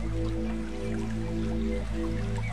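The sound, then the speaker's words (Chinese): A gently babbling brook, its water trickling and bubbling steadily without pause, heard faintly in the distance over a low, sustained droning hum. No one speaks. “你听，远处还有小溪流水的声音，这就像古诗里面的场景：小桥流水人家。”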